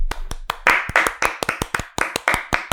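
Brisk hand clapping, a quick run of sharp, crisp claps in an uneven rhythm, loud and steady for a few seconds with no voices over it.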